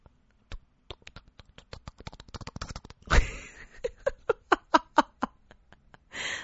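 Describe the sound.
A voice mimics beer being poured into a glass: a quick run of clicking mouth sounds, a breathy fizzing burst, then a string of rhythmic glugging syllables, ending in a soft hiss.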